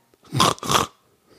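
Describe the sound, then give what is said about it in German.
A person imitates a pig with two quick, rough, nasal grunts in close succession, loud, with no other talking, presented as the top entry in a countdown of the coolest animal sounds of 2020. “Äh, auf Platz 1 ist selbstverständlich das Schwein. Und bitte, das Schwein.”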